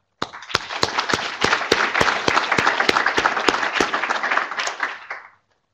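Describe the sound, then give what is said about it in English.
An audience at a talk at the University of Nebraska breaks into steady applause for the graduate students who organized everything, lasting about five seconds, many hands clapping densely with a few sharper distinct claps standing out, holding even in loudness before stopping abruptly. “And I would like to pause and give them an up- applause for organizing everything right now.”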